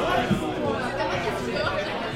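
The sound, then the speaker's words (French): A dense, steady murmur of many overlapping voices fills a large hall holding 300 to 400 people, no single speaker standing out, the crowd chatter holding an even, moderately loud level throughout. “Ben, je te dirais qu'ils l'ont mis à la même force, mais avec le paquet de monde qu'il y a, là, le son est comme coupé par les gens.”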